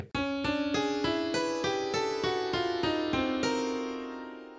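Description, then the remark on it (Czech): A short musical jingle: about eleven bright, plucked-sounding notes step quickly upward in an even rhythm, ringing into one another before the last note fades out. No voices. “Jo, počkej, tak já dám znělku teďka.”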